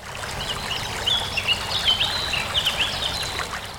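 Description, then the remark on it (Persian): Steady rushing of a flowing stream fills the scene, a continuous broad watery wash, with small birds chirping intermittently above it in short bright calls. “رفتند و رفتند تا رسیدند به یک رودخونه”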